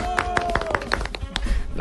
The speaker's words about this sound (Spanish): El aplauso para él. ¡Bravo!